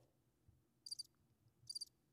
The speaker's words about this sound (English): Oh, that's supposed to be crickets. I meant the trombone, guys.